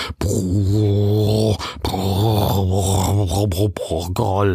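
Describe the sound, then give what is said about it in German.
A man's voice imitates a deep, eerie rumbling growl, drawn out in one long, loud, wavering stretch with a few brief breaks, with no other sounds. “Es war ein tiefes, unheimliches Grollen.”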